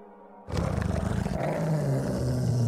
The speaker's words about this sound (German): Oh nein. Oh nein! Um es kommen ganz viele Wölfe. Um uns rum. Um euch herum.